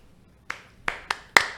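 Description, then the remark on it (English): Four sharp hand claps ring out in a loose, uneven rhythm, the last one loudest, like a brief smattering of applause with no voices. “So that, can we get a clap for that?”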